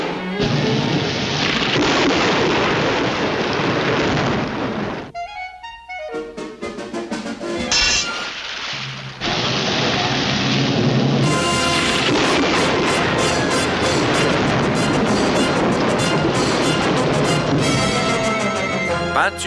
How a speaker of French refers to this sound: Formule K9, orage artificiel. Vous avez déclenché un tel orage sur la maison de ce chien qu'il ne sortira pas de chez lui pendant une semaine.